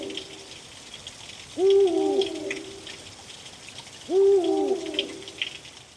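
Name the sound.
eagle owl hooting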